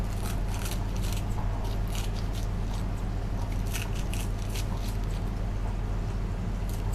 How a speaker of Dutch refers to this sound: Dit is zo'n kleine schaar, word er gek van.